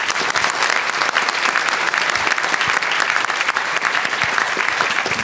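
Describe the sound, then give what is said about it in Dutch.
An audience claps steadily, a dense wash of many hands with crisp, overlapping slaps at an even, loud level from start to finish, with no voices standing out. “Eh, mogen wij een groot applaus voor onze gasten van de Preppark Podcast Ochtend in Prepparkland,”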